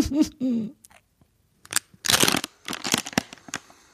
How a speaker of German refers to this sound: Die, die Puste, die ich da reinpuste, geht durch die Tröte. Aber ja, ich, aber wenn man gar, nein, wenn man ganz vorsichtig bläst, dann nicht. Ich blase ganz vorsichtig.